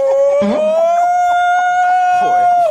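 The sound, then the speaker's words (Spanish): A man's voice imitates a long, wailing alarm, holding one steady, piercing tone for nearly three seconds with a slight rise and a sharp drop at the end, loud, as a noise for a football goal. “número uno, Raúl, alarma”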